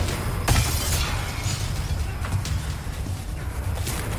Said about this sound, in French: Oh, il est en train de péter la porte.